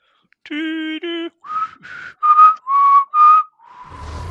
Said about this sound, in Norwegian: Uh, kan en av dere plystre en intro?